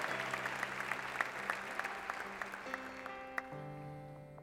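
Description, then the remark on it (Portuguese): An audience applauds for the Lord during a sermon, with dense, steady clapping that gradually thins, while sustained organ or keyboard chords hold underneath and shift to a new chord near the end. “Então, dá um aplauso ao Senhor por isso que eu acabei de falar.”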